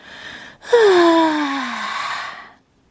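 A loud, drawn-out yawn from a close voice: a brief breathy inhale, then a long voiced exhale that slides downward in pitch before trailing off into silence.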